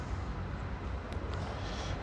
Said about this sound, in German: Es ist ziemlich viele Autos. Das ist ein großer Nachteil. Man hört es vielleicht hier im Hintergrund. Es ist viel Autolärm.